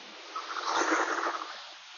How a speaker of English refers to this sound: Forgive the noise. I'm on Daniel Webster Highway right now, so it's a little loud. The morning rush hour, if you will. All seven cars.